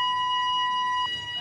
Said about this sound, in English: Okay, that's the fire alarm going off in the bridge. Can someone check it, please?